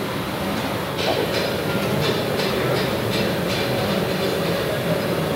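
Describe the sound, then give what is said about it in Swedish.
Loud, steady industrial roar of a very hot glassworks production floor where wine glasses are being made, with a row of regular hissing bursts pulsing through the din for a few seconds. No voices are heard. “Det är jättevarmt och det låter ganska mycket så man förstår att de har eh, hörlurar. Ja, det är ganska mycket väsen och sen otroligt varmt alltså.”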